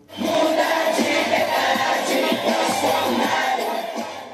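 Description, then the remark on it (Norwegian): A large crowd of Jair Bolsonaro's supporters in Brazil cheers and shouts together after his election victory in late October, a dense, sustained roar of many voices, steady and loud throughout with rough bursts of yelling. “Tilhengerne til Jair Bolsonaro jubler etter valgseieren her i Brasil i slutten av oktober.”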